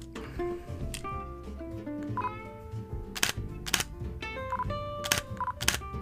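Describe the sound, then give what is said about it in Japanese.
Several crisp mechanical shutter clicks from a Nikon Z50 mirrorless camera, arriving in irregular pairs and bursts over a faint background hum, with no talking. “シャッター音ってどうなるんでしょうねこれ今 Z50 ですけど”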